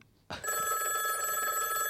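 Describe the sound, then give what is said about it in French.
An old-fashioned telephone bell at Radio Pulsar in Poitiers rings loudly and continuously during a call, a bright metallic jangle that starts abruptly after a brief quiet moment and keeps trilling without pause. “Euh, pardon, le téléphone est un peu ancien”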